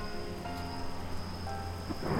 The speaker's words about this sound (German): Der Donner rollt über den Berg, als bräche die ganze Erde in zwei. Und eine Minute später prasselt der Regen mit urzeitlicher Wucht auf mein Dach, so wie es nur ein Unwetter in finsterer tropischer Nacht verursachen kann.